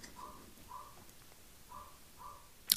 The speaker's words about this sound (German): Sorry, wenn der Hund bellt, der hat Hunger.